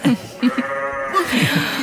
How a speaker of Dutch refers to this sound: Oh, nu wordt er weer een schaap.